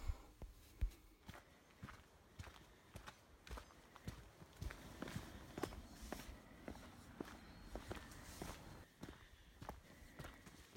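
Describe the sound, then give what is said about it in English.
Steady footsteps crunch and thud across changing ground at Hatcher's Hill, from a gritty ash path to softer woodland earth and a hollow wooden boardwalk, fairly loud with no one speaking. “it's not all of it, it's only a really short, sort of one minute of it, but uh, hopefully you can hear all the different types of surfaces underfoot from um, ash path to woodlands to boardwalk and all the other things.”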